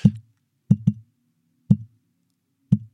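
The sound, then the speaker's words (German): A voice imitates a heartbeat as felt with a finger on the neck, showing an extra beat, with soft, low thumping pops in an uneven rhythm: a single beat, then a quick double beat, then two more spaced single beats, with silence between. “Also da ist immer so, eine, so ein Extraschlag äh, ah. drin, ne?”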